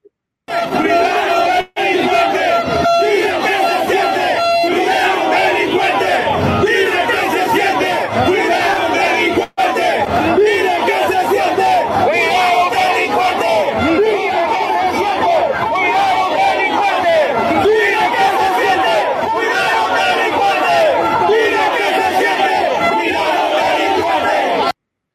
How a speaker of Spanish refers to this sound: Aquí hay un grupo de gente que, bueno, muy molesta, dice lo que piensa. A ver, ¿usted qué, usted qué opina al respecto? Se lo voy a poner para que usted lo pueda ver y escuchar directamente.